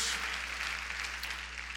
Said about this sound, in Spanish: Dense el mejor aplauso, por favor, todos ustedes. Bienvenidos a Gray City Church.